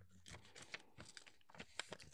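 Quiet paper handling as a paper plane is made: a run of soft crinkles, rustles and sharp creasing snaps as the sheet is turned over and folded down the middle, with no voices.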